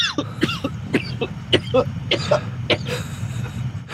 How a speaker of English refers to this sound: that's made me have a coughing fit.